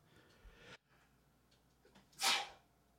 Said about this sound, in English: Bless you.